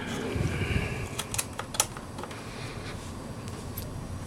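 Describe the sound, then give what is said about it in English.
A few sharp plastic clicks and snaps come at irregular moments, one slightly louder than the rest, over a steady low background hum with no talking: plastic tabs being pushed with the thumbs so they latch back into place. “push will latch it in place and I'll do both of them at the same time They make a little bit of a crunching or a snapping noise.”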